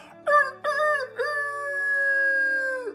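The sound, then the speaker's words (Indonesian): A person imitates a rooster crowing: two short clipped notes, then one long drawn-out call held for nearly two seconds. The voice is loud and clear, with no other sounds. “Ayam berkokok siap membangunkan seorang anak yang sedang tertidur dan seterusnya.”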